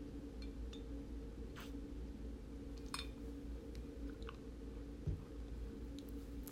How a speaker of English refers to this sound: Give me a second. I'm going to take a sip.